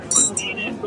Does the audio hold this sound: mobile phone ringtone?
no